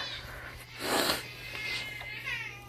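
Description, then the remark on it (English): An agitated cat gives a sharp, breathy hiss, then a thin, wavering growl-yowl, fairly quiet, with a steady low electrical hum underneath. “And oh, she's mad.”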